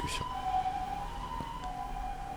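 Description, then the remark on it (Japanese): A steady ambulance siren tone holds through the whole stretch, moderately loud, as an ambulance passes by, with a brief sharp knock early on and faint road hum underneath. “救急車通りましたけどもえー”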